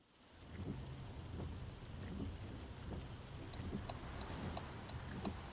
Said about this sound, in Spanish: Es 23 de septiembre de 1936, es un miércoles, y bajo la tormenta, bajo una copiosa lluvia,